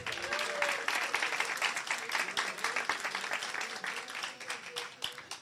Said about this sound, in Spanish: ¿Cuántos alaban al Señor? Si le va a aplaudir, apláudale.